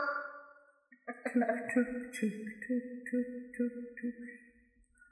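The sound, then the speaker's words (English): A voice imitates a cowbell, with a sustained vocal tone leading into a steady run of about eight short, clipped, tonal hits at an even beat, fairly loud. “that's my best cowbell sound I can do.”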